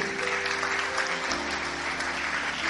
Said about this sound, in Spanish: Bendito sea el Señor. Dale fuerte el aplauso al Rey.